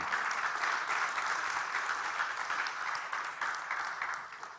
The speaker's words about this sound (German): Lass uns dem Herrn einen Applaus geben, dann dürft ihr wieder Platz nehmen.